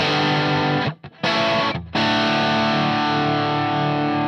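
Heavily overdriven electric guitar chords with thick amp breakup distortion, played through one amp channel turned up to about one or two o'clock. Played loud with two brief pauses early on before a sustained, fuzzy chord rings out. No one speaks.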